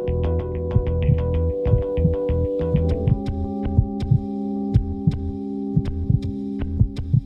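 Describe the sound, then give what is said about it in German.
A steady, muffled heartbeat thumps at an even pace over a continuous low hum, with soft clicks accompanying each beat. No one speaks. “Die besondere Bedeutung der tiefen Töne beginnt im Mutterleib mit dem Herzschlag, aber auch den Magengeräuschen der Mutter.”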